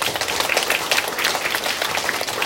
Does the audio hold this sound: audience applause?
yes